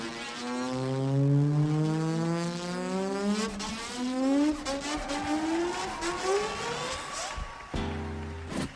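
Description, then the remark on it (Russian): An acoustic guitar, played by a Brazilian guitarist at the end of a cover performance, mimics a revving car engine, with harmonic pitch sweeps rising and falling over several seconds like a motor accelerating and shifting gears, ending in a choppy, stuttering burst. “Оцените звук двигателя, который ему удалось извлечь из нее в конце исполнения”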